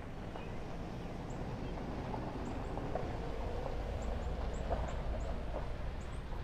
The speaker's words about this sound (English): Um, hang on, guys. There is a car that is going by. One moment.